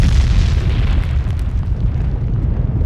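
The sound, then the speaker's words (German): A dull, heavy detonation boom with a deep rumble that rolls on loudly for a few seconds, thick with low-end roar and no voices. “Und dann hat es ein, eine Detonation gegeben, also ein dumpfer Knall.”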